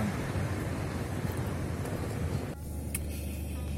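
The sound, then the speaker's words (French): Steady low rumble of road and engine noise inside a moving car with the dome light on, recorded as a test with a Xiaomi Mi 1 front camera, a broad continuous roar that drops slightly partway through, with no talking. “Voilà, un petit test dans la voiture avec le plafonnier allumé quand même avec le Xiaomi Mi 1 petit test de la caméra avant.”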